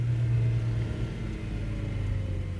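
A car engine hums steadily with a deep, continuous rumble as the car bumps along a dirt field track back to the village of Hechtheim on a hot day, its sunroof closed. No one speaks.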